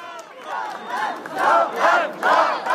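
A crowd of supporters cheers and shouts together in rising, swelling waves of many voices, growing louder in surges over a few seconds, greeting Jordan Bardella, president of the Rassemblement national, as he enters the Salon de l'agriculture.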